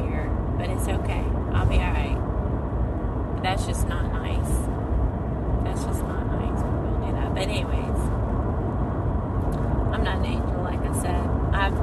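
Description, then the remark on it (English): A steady, loud low rumble of a car driving on the road runs through the whole stretch, with a person talking intermittently over the road noise; a car with bright lights on is driving behind the speaker. “I wish I could get these this car behind me with this bright lights off my”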